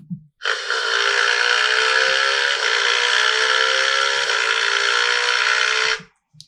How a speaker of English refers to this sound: They ran out of the doors, bidding Miss Albany goodbye, and hopped onto the, her mo- motorcycle, speeding off to the forest.